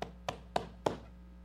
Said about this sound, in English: And there's a knock at the door.